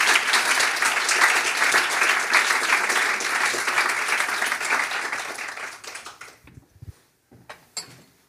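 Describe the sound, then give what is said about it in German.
An audience applauds steadily for about six seconds to welcome two guests, a dense wash of many hands clapping, then the clapping thins out into a few scattered claps before fading. “Und ich freue mich sehr, dass ihr beide heute hier seid. Applaus”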